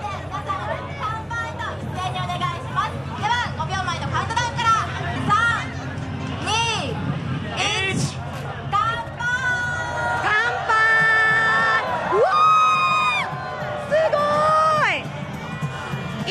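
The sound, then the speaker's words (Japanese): A lively party crowd toasting aboard a cruise boat off Haneda Airport, Japan, chatters and shouts all at once, with excited, high-pitched cheers and drawn-out calls rising over the steady babble toward the end. “ちょっと、戦場は今ものすごいパーティー状態。”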